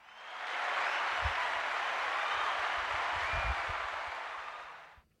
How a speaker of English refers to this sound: Round of applause. Oh, where's that button?